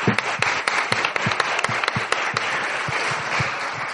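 A crowd breaks into steady applause, many hands clapping in a dense, sharp patter that stays fairly loud and even for the whole stretch, with no voices standing out.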